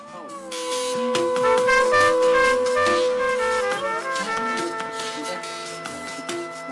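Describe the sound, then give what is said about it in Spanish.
Music plays on a radio program just before it goes to a break, steady, with sustained, wailing tones rich in overtones that slide in pitch partway through over a busy rhythmic pulse, holding a fairly loud, even level throughout. “Estamos escuchando un poco de su música y con esto nos vamos al corte.”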